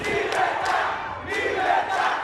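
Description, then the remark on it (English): A large crowd of protesters in Havana, Cuba, shouts "Libertad" (freedom) in unison in Spanish, a sustained roar of many voices rising and falling in rhythmic chant-like bursts, loud and dense throughout. “Libertad, the crowd in Havana shouts, or freedom, but while many Cubans feel this in their hearts, it's extremely rare for protesters to take to the streets to give vent to their anger in this one party communist state.”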